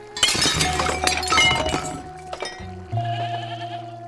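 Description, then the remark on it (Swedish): A loud crash of a gold-rimmed, hand-painted porcelain dinner service of plates and platters, dropped from a man's grip at an open cupboard, smashing on a floor: a dense two-second burst of clattering, tinkling shards, then a few scattered pieces settling before a sustained, wavering bleat-like tone takes over. “Som han tappar greppet om och som faller i golvet med en ljudlig krasch.”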